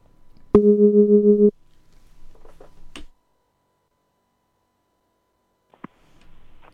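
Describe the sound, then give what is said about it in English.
A single steady telephone ringing tone sounds for about a second as a radio presenter places a call to a prize giveaway entrant, followed by faint clicks and soft line noise, then near silence. “Fingers crossed they pick up this time, okay? Please stand by your phone. It could be you I call right now.”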